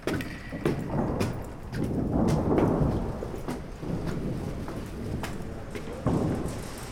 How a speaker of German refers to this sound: Sehr windig.